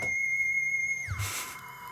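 A mobile phone ringtone: a steady, high electronic tone that holds for about a second, then slides down in pitch and fades into a soft hiss, with no voices.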